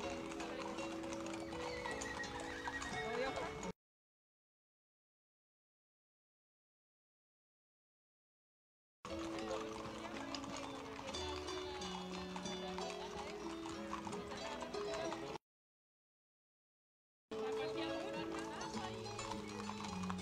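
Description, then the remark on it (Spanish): Horse hooves clip-clop steadily while horses neigh and whinny at a traditional festival with more than 200 riders, including women on horseback, heard in three loud stretches broken by total silence, with a busy outdoor bustle and indistinct voices mixed underneath. “jinetes, me imagino que más de 200 jinetes se hacen parte también de esta tradición. Oiga, mujeres también a caballo, bien llamativo.”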